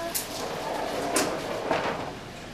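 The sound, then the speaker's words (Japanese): The old wooden sliding door of the Meika Mirokuishi sweets shop rumbles and scrapes along its track as it is opened, in a few rough bursts over steady background noise, with no talking. “名家弥勒石というお菓子屋さんに入ってみたいと思いますあなんか歴史を感じる扉ですね”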